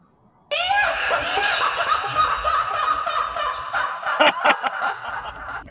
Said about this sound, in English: They have a creepy laugh.